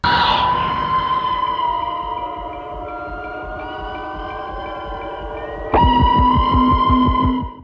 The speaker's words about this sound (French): Entre sa bande-annonce hyper intense rythmée au son de cette sorte d'alarme